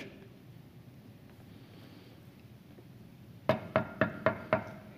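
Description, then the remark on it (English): A series of five sharp knocks on a door, evenly spaced and fairly loud, following a few seconds of quiet. “Then there's a knock at the door.”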